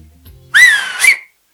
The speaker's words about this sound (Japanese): ピューピューやっておりましたね。はい。口笛っていうか、あの、指をあの口に突っ込んでピューピューってやるね、やつで、これね。